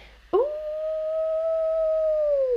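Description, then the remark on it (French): A submarine sonar tone that sounds like a wolf howl, known as the 'wolf's song', sent by another vessel's sonar placed in the water to detect a submarine: one long, steady, loud note starting abruptly, holding its pitch for about two seconds, then sagging slightly at the end, with no talking. “comme ça, un peu comme un loup, hein, comme l'animal, on appelle ça le chant du loup.”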